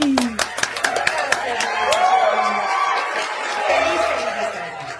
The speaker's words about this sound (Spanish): Vamos a darle un aplauso cariñosísimo de bienvenida a nuestra querida Cristina Jauregui.